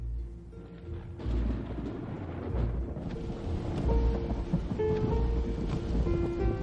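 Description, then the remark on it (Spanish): Steady rain hisses continuously at night as a man drives through it, alongside a deep, rumbling low drone, with faint tonal sounds drifting through; no voices, and the loudness stays fairly even throughout. “Ya de noche el hombre conduce bajo la lluvia, tiene aspecto de tranquilo provinciano,”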